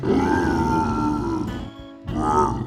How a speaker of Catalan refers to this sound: Per tant, d'aquí passem a posar-li tots els filtres que calguin i, a més a més, ajuntar-ho amb efectes sonors de lleons de veritat, de manera que queda així.